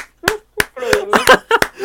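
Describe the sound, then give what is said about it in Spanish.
A second round of applause: a handful of sharp, loud hand claps, about five spaced irregularly across the moment, with a voice talking or laughing in between them. “Segundo aplauso, claro.”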